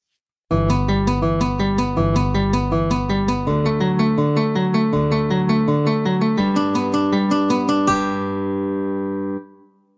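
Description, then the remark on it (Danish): A minor-key Alberti bass figure played on guitar instead of piano: steady, evenly spaced broken-chord notes cycling through a few harmonies, fairly loud, with a final chord left ringing out, no voices. “Og hvis man så også endda giver den til en guitar, så i stedet for et klaver, så bliver den også lidt, lidt federe at høre på.”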